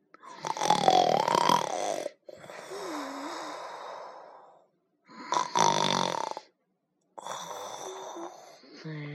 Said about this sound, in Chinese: 原来。是一个小精灵睡着了，他在梦里偶尔打起响亮的呼噜。